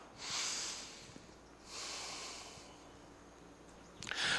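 Two slow, airy breaths drawn through the nose, a deep inhale followed by a long, softer exhale, with no talking; a deliberate deep breath taken during a spoken Christian devotional.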